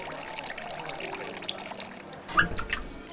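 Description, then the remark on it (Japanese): Tap water runs in a steady, soft trickle for a few seconds as a bar master pours it into a glass at a Kobe water bar that serves only tap water, then a brighter splash and clink as the pour ends, with no voices. “水曜の夕暮れ時にオープンする水道水だけを提供する水飲みバーマスターが手慣れた手つきでグラスに水道水を注ぎ”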